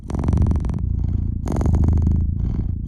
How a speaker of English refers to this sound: So for a while, when I was writing, I played the purring cat.